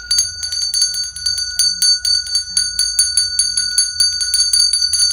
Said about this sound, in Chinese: 于是突然，又有一个电话响了，开始响了，亮亮亮亮亮亮。